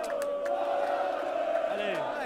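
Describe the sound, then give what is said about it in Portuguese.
Football fans, including Croatian supporters, chant in a rival back-and-forth, a dense wall of massed voices holding sustained sung tones with rising shouts, loud and continuous throughout. “Tá tendo até guerra de torcida ali com o pessoal da Croácia cantando, olha lá.”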